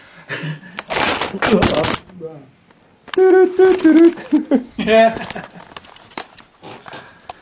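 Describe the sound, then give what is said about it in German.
A sudden loud clatter of recording equipment toppling over, hard objects knocking together, followed by a few scattered knocks and then people talking. “Es, unsere Aufnahmetechnik ist gerade umgefallen, liebe Zuhörer.”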